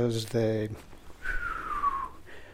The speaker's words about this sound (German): Uh, sogenannte Whistlers, also Pfeifer, die manchmal uh, sogar kleine Glissandi haben. Sie kennen das vielleicht. Man kann uh, diese Whistlers hören, wenn man bei einem Gewitter sein Transistorradio anhat.